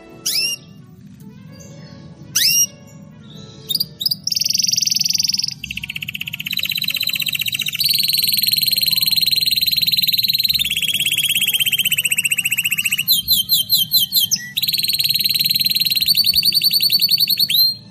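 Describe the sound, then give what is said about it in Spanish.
A canary sings continuously, with high whistled phrases, rapid rolling trills and quick chirping sweeps, loud over a low steady background hum. No one speaks. “El cantar de un canario tiene algo que hechiza, ¿verdad?”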